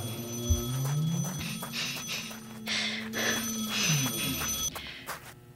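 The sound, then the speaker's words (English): A telephone rings persistently, its bright metallic trilling repeating over a busy layered background of tones and low rumble, moderately loud. “Phone stop ringing.”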